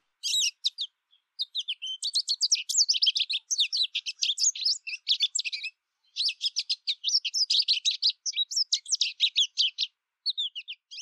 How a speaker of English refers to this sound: Today's bird of the day is the American goldfinch.